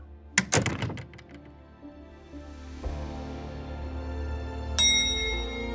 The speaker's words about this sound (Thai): บ้านฉันมีกฎกริ่งชิงโชคหรือไงเนี่ย ใครมันมากดได้ทุกวัน ค่ะ กำลังไปแล้วค่ะ